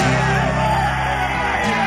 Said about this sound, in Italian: Gli applausi che sentite qui a Catrocaro sono diretti a Felice Gimondi che sta dissettandoti dopo la prova che l'ha visto nettamente vincitore in questa nona edizione del Gran Premio Castro Caro Terme a cronometro individuale.